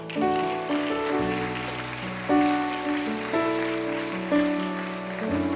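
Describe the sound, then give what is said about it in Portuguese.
A crowd applauds the Lord in worship, clapping steadily and continuously, a dense patter of hands layered over sustained keyboard chords that change every second or so. “Aplauda o Senhor.”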